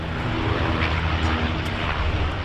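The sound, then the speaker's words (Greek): A loud, continuous firefighting propeller aircraft roars overhead during a wildfire at the edge of the village of Lefkimmi, making a drop a few meters from the houses, its low engine drone steady and heavy throughout, with no voices. “τελικά επεμβαίνουν τα εναέρια μέσα, τα ελικόπτερα και τα αεροσκάφη τη πυροσβεστική πραγματοποιούν ρήψει λίγα μέτρα από τα σπίτια τη Λευκήμη.”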